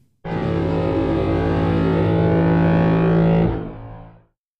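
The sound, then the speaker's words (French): A deep, sustained ship horn layered with a buzzing, harmonically rich didgeridoo tone, both edited and processed samples, starting abruptly and holding steady for about three seconds before tapering off with a short fading tail. “À ce stade, je superpose les deux sons édités et traités des deux échantillons d'origine que sont la sirène de bateau et le didgeridoo pour obtenir le son complet.”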